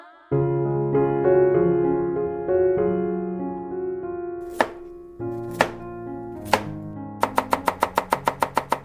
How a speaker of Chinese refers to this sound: 哦，听你的切菜声，就知道这刀子切起来轻松利落，应该很好用哦。